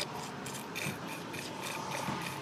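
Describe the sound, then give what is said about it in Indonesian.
Wet, rasping slurps of soto, an Indonesian soup with bone marrow, a steady run of sucking and airy scraping noises with a few stronger bursts, fairly quiet and with no talking. “masih enak kedengeran nggak seruputannya jadi kita menikmatinya itu ada teksturnya juga nih seruputannya itu ah mantap”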